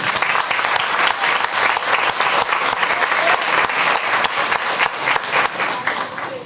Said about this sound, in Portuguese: As palmas engrandecem esse Deus maravilhoso.